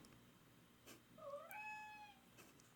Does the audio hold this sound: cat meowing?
yes